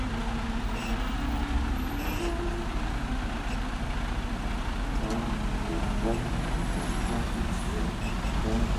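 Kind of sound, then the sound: vehicle, truck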